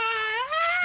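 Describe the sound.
A voice imitates a tree creature's scream: one sustained, high, rising and wavering shriek lasting about a second, loud, with no other talk.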